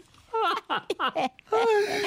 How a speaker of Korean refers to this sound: 아, 변성기 오기 전이군요 이 돼지가. 목이 쉰다고.